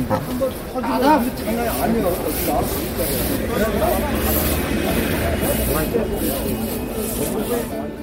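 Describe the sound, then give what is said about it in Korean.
Ambience of a dawn day-labor market during the COVID-19 pandemic, where day laborers gather at a labor office for work: many voices murmur and overlap at a steady level, no single speech clear, over a constant soft hiss throughout. “치열한 삶의 현장 새벽 인력 시장의 풍경 들려드렸습니다.”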